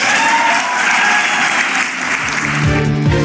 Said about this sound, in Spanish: Pues ahí los aplausos para el presidente Andrés Manuel López Obrador.